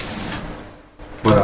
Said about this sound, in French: Bah écoutez, excusez-moi pour le bruit parce que c'est le... je suis en train de sortir le CD.